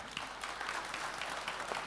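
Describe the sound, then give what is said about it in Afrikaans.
An audience applauds a group with steady, dense clapping that holds at an even level throughout, a bright crackling texture of many hands with no voices standing out. “Kan ons vir hulle ook 'n hande klap gee toe?”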